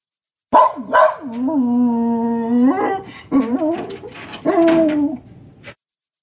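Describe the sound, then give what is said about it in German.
A young German shepherd puppy that a breeder wants to sell barks in high yips, stretching one cry into a long, wavering whine before a few more sharp yelps. No one speaks. “Der Züchter Paul möchte einen jungen deutschen Schäferhund verkaufen.”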